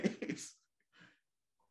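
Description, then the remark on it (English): A short, sharp sneeze bursts out, followed by a softer breathy sound and a brief vocal noise at the end. “Bless you.”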